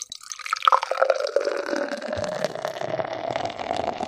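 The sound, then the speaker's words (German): Beer is poured from a can into a glass: a steady gurgling, fizzing stream whose pitch climbs as the glass fills, foaming heavily, fairly loud, with no talking over it. “Also ich sch schütze extra mal so ein, dass ihr es schön hört, ne?”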